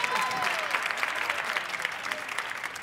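An audience claps steadily at a performer's call for a round of applause for joy before a song, a dense wash of many hands filling the whole stretch at an even, moderate loudness, with a few faint whistles or cheers threaded through.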